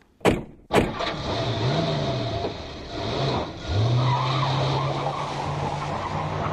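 Two quick door slams, then a car engine revs hard and rises in pitch as the vehicle tears off, tires screeching loudly and continuously.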